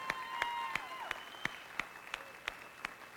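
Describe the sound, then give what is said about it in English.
An audience at a morning church service claps in praise of the Lord in a steady, even rhythm, roughly three claps a second, with sustained musical or vocal tones ringing faintly underneath; no distinct cheering stands out. “Let's praise the Lord one time this morning. Let me hear it.”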